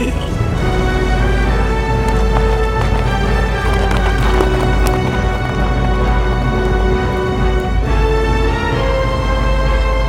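Horses gallop in a steady rush of hoofbeats, mixed into loud, sustained orchestral music that carries through the whole stretch with no one speaking.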